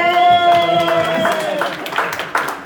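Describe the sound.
A small audience bursts into scattered, uneven clapping, with a drawn-out cheering voice over the start and more claps rattling on until the end.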